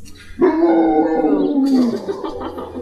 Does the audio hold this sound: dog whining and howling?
yes